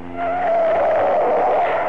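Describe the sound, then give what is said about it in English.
Car tires screech in a loud, sustained squeal as a getaway car fleeing the police skids hard around a corner, with engine rumble underneath for about two seconds and no voices. “Oh, tight on the corner.”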